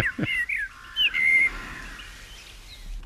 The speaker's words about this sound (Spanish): esto está en Montejo de la Sierra, en el ayuda de Montejo de la Sierra Madrid, y es un pájaro que va frase a frase, va puliendo, eh, adornando, añadiendo notas hasta que tiene su secuencia y luego la repite ya